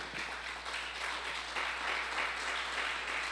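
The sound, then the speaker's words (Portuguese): A crowd applauds the Lord steadily for a few seconds, many hands clapping into a dense, even wash of sound that stays at a constant loudness without any voices. “Você pode aplaudir o Senhor mais uma vez?”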